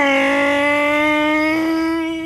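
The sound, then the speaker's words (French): A delivery truck is started and its engine roars loudly and steadily, its pitch climbing slowly as it accelerates away at full speed, with no voices over it. “Une fois que c'est fait, Jesse démarre son camion et va à toute vitesse.”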